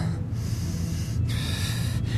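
Loud breathing, drawing air in deeply through the nose in long, steady pulls separated by brief pauses. No one speaks.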